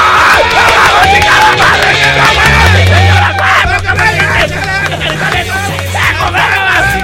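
A loud crowd yells and cheers continuously on cue as the show's hosts enter, with whoops and shouting voices layered over a dense roar and some low background music throughout.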